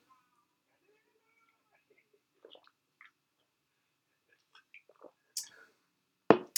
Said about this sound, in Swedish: Nu tar jag en liten julmustsipp.